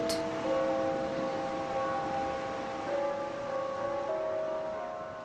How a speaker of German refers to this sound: Eins der größten ist das der Sparkasse von Asturien mit einem Glockenturm, von dem zu jeder vollen Stunde die Hymne Asturiens erklingt.